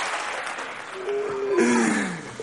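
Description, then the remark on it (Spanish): An audience applauds steadily, a dense crackle of many hands clapping at once, with a few voices calling out and whooping above the clapping midway through. “O sea, ¿por qué le aplauden a este?”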